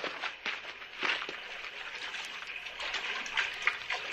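Water sloshes and splashes steadily for a few seconds, a continuous liquid wash broken by a few brief louder splashes, with no voices.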